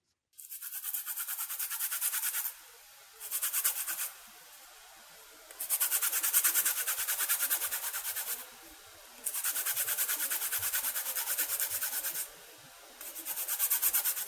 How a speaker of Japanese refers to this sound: 朝の仕込みで使うみかんの皮をすりおろす音です毎朝みかんのいい香りがしますちなみに品種はセトカです